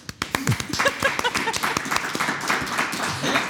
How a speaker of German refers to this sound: Applaus dafür.